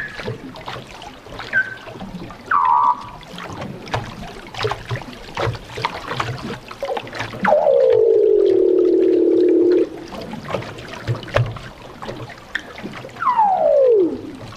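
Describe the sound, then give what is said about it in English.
Marine animals sing underwater around a boat's hull: short chirping calls, then a long steady moaning tone, and finally a descending whistle, all over a crackling, ticking underwater background with no talking. “playing around the hull, and they make the most intriguing sound, the most amazing, beautiful song and I had no idea that they even did that.”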